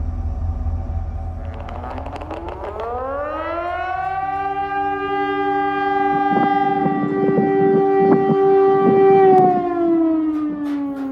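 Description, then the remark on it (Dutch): A civil defense siren sounds on the streets of Vilnius, Lithuania, along with an emergency alert about a nuclear disaster, winding up from a low drone into a loud, sustained wail, holding steady for several seconds before starting to wind down, with a low rumbling background beneath it. “Als je dinsdag in Vilnius op straat liep, dan hoorde je de sirenes afgaan.”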